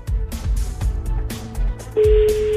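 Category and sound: signal or alarm, telephone ringing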